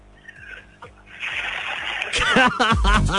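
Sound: water being poured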